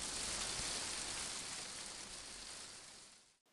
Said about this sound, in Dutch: Het begint te waaien en te regenen en te waaien en te regenen en dan komt de hagel. Hagelstenen als pingpongballen zo groot. In heel Egypte begint het verschrikkelijk te hagelen.